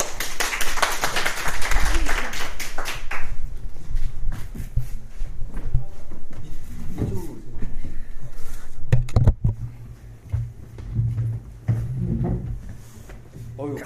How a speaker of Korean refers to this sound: 어 고생하셨습니다. 애쓰셨어요. 네, 자, 박수 예. 한번.